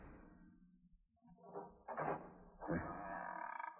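A door creaks and scrapes as it is eased further open, a few short rasping strokes ending in a longer drawn-out groan, quiet with no talking.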